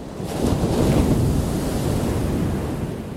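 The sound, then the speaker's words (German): Rough sea waves churn and break in a steady roar, with one heavier surge early on and hissing spray over a deep, rumbling wash, buffeted by wind. “Bei unruhiger See wird der Oberflächenfilm untergespült, mit tiefer liegenden Wasserschichten vermischt.”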